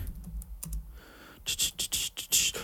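Keys clatter on a computer keyboard as someone looks up news about actor Sid Haig, in a slow, uneven burst of crisp clicks, sparse at first and then quicker and louder toward the end, with no one talking.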